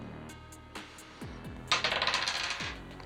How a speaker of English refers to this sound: I've chosen the bloody dice, hoping that that will help me more for a combat roll. Those that, those dice were purchased with intent for combat. Yeah. So here we go.